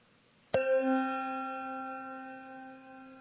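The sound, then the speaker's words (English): A single bell strike, rung at a church service in remembrance of deceased members of the audience as each is named, rings out with a sharp attack, then a long, steady metallic tone with several clear overtones slowly fading over a few seconds. No voices are heard. “We will name each person and also ring the bell in remembrance.”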